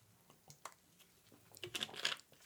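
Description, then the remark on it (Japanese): A plastic bottle of sparkling water crackles in the hand with a few light clicks, then gives a short, fizzy hiss as the cap is twisted open. No one speaks. “はいちょっとびっくりした人いますよね今シュッとねこの音炭酸水の音このボトルを開ける時の音が怖いというあの そういうあの話を聞きましたからそれから気をつけてたつもりなんですけどまたちょっとあの忘れてしまいました申し訳ございません”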